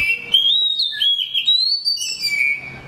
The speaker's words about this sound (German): Die Dayaldrossel ist relativ weit verbreitet im Mittleren und Fernen Osten und auch in Südostasien. Allerdings, da sie so schön singt, auch ein begehrter Käfigvogel gewesen lange Zeit.